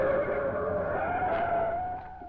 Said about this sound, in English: But he became alert a short time later when he heard a car stop outside his house and the doorbell rang clamorously.